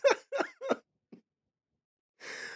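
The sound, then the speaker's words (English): A person clears their throat in three quick, gruff bursts, followed by a faint click and a short breathy rasp after a brief pause. “Uh, the minute they clear their throat.”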